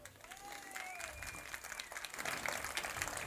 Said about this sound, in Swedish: Jag vet inte hur många var här och såg matchen sist? Applådera!